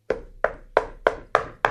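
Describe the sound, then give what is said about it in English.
Six hollow knocks on an enormous plastic tower of beef, evenly spaced about a third of a second apart, fairly loud with a short resonant ring after each hit. “That sound you hear is me knocking on the enormous plastic tower of beef.”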